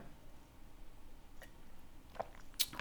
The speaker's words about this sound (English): Sorry, I didn't realize you were taking a swig there. yeah, I was taking a sip of wine.